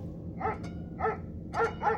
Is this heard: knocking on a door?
no